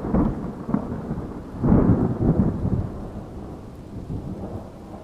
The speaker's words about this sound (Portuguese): Esses trovões são meio assustadores, né?